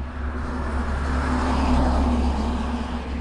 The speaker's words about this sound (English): apologies, another truck. So yeah, I can't really talk, but anyway.